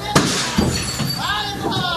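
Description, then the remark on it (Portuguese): Glass shatters with a sharp crash, followed by bright tinkling fragments scattering, while a voice carries on talking underneath. A pane of glass has broken in the broadcast booth during live football commentary. “E quebrou um vidro aqui na cabine, rapaz.”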